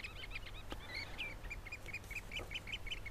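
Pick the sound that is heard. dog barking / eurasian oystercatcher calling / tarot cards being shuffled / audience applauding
eurasian oystercatcher calling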